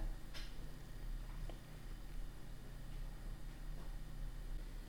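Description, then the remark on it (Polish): A steady, low computer fan hum and hiss, continuous and even throughout, with one faint click near the start and no voices, heard in the background of a recording made with DPA 4060 microphones placed in the ears and connected to a Fostex FR2LE recorder. “Słychać komputer w tle.”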